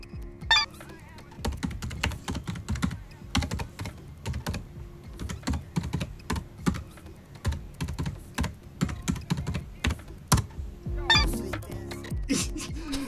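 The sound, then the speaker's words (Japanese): Rapid, uneven keystrokes clatter on a computer keyboard, fairly loud, in bursts with brief pauses and a few sharper, heavier key hits standing out, with no one talking. “何文字叩いたぐらいはもう一回聞いたらえだってさ左手と右手があるわけでしょキーボードだから”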